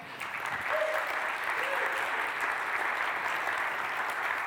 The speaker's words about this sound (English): Let's give them a round of applause.